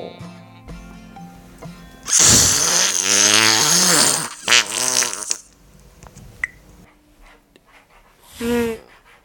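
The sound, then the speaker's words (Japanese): A long, loud, buzzy raspberry blown with the lips as a mouth-made fart sound, one of a compilation of mouth farts sent in for a mouth-fart contest, wavering in pitch for about three seconds, followed by a few shorter sputters and a brief final burst, with faint background music underneath. “そしたらね総集編ということで今まで届いた口おなら全部今流したいと思いますこれでこれで口おなら選手権第1回第2回があるんでしょうかじゃあ聞いてみましょう”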